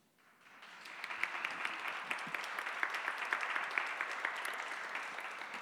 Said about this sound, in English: I'll take that applause as, as not interesting.